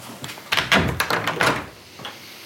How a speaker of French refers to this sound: Je vais juste fermer la porte parce que je crève de froid.